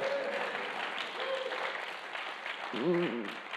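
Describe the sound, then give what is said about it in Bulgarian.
A church audience applauds steadily for several seconds during a sermon, a dense wash of clapping, with a few short voiced calls rising above it, the loudest near the end. “Знам защо не всички сте ентусиазирани и ръкопляскате”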